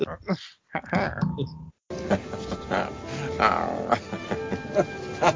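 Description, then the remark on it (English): A voice imitates wet, throaty gargling and drooling noises, rough and bubbling, with a brief pause early on before a longer continuous stretch. “How is his fly um, gargling and like drooling all over himself the third most least annoying?”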